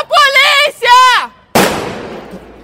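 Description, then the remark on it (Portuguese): From a video circulating on social media of a robbery in Vila Olímpia, São Paulo: two short shouted vocal cries are followed by a single loud, sharp gunshot from a suspect aiming a gun toward a woman, cracking across the whole range and decaying over about a second. “Em um vídeo que circula nas redes sociais, ela se revolta com o criminoso e, em seguida, é possível ver o suspeito apontando a arma para onde ela está e ouvir um estampido.”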